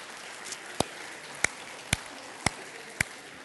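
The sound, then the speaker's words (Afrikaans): Applause for people called to the front to receive a gift, coming as a handful of sharp, separate claps, about five in a steady, unhurried rhythm, crisp and moderately loud over a faint hiss, with no talking. “Gee vir hulle lekker aan 'n klap toe.”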